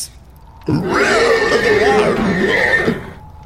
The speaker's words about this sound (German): Du hörst ein verzerrtes Wiehern. Hallo Pferd, geht's dir gut?